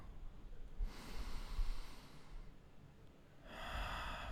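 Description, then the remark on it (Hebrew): A slow, deep breath drawn in through the nose, then a pause and a long airy exhale, clear with no talking, taken during a guided breathing exercise to release tension in the body. “אז בואו תיקחו עוד נשימה עמוקה.”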